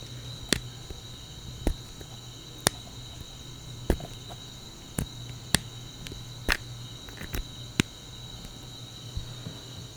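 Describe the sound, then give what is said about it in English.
Someone clicks with their mouth, sharp single clicks spaced irregularly about once a second, over a steady high insect-like drone and low hum. No one speaks. “a clicking sound. So let's mimic the clicking sound”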